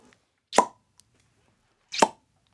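Two wet, squelchy plops from a squeezed ketchup bottle, spaced about one and a half seconds apart, fairly loud with near silence between them.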